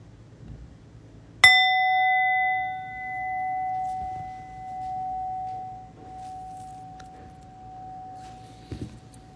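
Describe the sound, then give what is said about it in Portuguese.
A single meditation bell is struck once, a bright metallic strike that rings out in a long, steady sustained tone slowly fading over several seconds against a quiet, faintly noisy background. “Então, daqui a pouquinho eu vou convidar o sino a soar uma vez, não precisa se mexer correndo quando o sino soar.”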